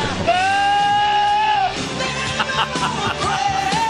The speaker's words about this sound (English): every time I hear the song now, it feels like it's not right unless the goats are in there.